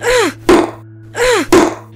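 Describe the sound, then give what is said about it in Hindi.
A woman strikes a padlock twice with a hammer taken from a toolbox in a drawer, trying to break the lock. The strikes come in a steady rhythm, each sharp, loud whack preceded by a strained, rising grunt of effort. “उसी ड्रॉर में उसे एक टूल बॉक्स मिलता है जिसमें एक हथौड़ा रखा होता है नूर उसे निकालती है और उस हथौड़े से ताला तोड़ने की कोशिश करने लगती है”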